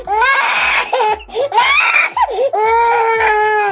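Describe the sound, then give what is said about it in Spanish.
Loud, exaggerated wailing and sobbing, rising in drawn-out bursts with brief catches of breath between them, like a comical crying effect. “Van a empezar a hablar toda la bola de llorones de color amarillo.”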